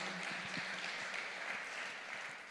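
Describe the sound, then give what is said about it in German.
An audience applauds in thanks for the last three sermons, in a dense, steady wash of many hands clapping, holding at an even level for a couple of seconds before easing off slightly, with no talking over it. “Lass uns den auch mal einen Applaus geben.”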